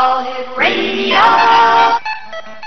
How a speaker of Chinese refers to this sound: 好了，刚才你听过我们最新制作的这几个 jingle 之后，有什么样的感觉呢？至少我已经得到反馈了，很多派客都纷纷发来短信表扬你们制作的这个宣传带真的是非常好听。